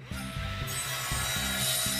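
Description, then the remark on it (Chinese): A chainsaw, made by Wu Gang with the magic of the Moon Palace in a story, cuts into a tree: a loud, low, rough buzzing that surges in repeated strokes, roughly two or three a second, with no voices. “接着，他再运用月宫那神奇的力量，终于制造出了电锯。”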